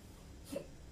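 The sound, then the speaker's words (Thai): A single short hiccup, a quick voiced gulp that pops out once midway through an otherwise quiet moment, moderately loud, with no talking around it. “อุ้ยสะอึกนะ”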